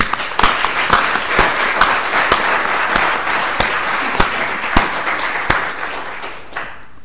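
An LSE audience applauds to welcome a speaker, many hands clapping in a dense, steady wash with a few sharper claps standing out, lasting several seconds before tapering off at the end.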